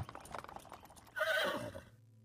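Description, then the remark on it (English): Steady clip-clop of hooves from a horse-drawn carriage slows and stops, then a horse lets out a loud, wavering whinny that fades away. No one speaks. “And you feel the carriage come to an abrupt stop.”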